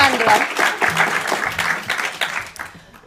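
An audience at a session entitled Is Porn Corrupting Sex? breaks into steady applause for the session's producer and chair, a dense, continuous patter of many hands clapping that holds fairly loud before fading out toward the end.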